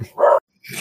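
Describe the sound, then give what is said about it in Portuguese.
A dog gives one short, sharp bark, followed by a brief silence before a person's voice begins. “Pô, desculpa o cachorro aí, galera.”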